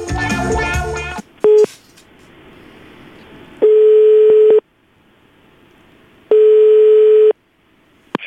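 Telephone dialing for a call to a seller about a chair: a burst of mixed tones and a short beep, then two steady, loud ringing tones of about a second each, separated by a quiet pause of roughly two seconds. No one speaks.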